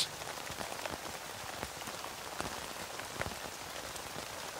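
Steady rain falls and patters on a tent, a dense, continuous hiss with scattered sharper drops tapping through it, even in level throughout.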